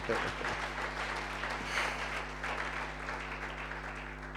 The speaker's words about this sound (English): Can you give a powerful clap offering to the Lord?